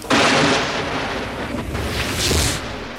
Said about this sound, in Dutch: Zelden hebben we, zelfs tijdens de burgeroorlog niet... zo'n oorverdovend artilleriebombardement meegemaakt.